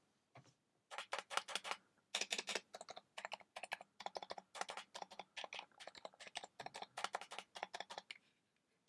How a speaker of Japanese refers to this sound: 気になる方はですね、セブンイレブンに行って、あのお金を下ろすまでもなくなんか適当に123とか打ってみるとこの静電容量の接点方式のキーボードを打った時の気持ちっていうのはちょっとわかるんじゃないかなっていう感じですね。でこいつ何がいいのかっていうのなんですけどまず音がいいんですよ。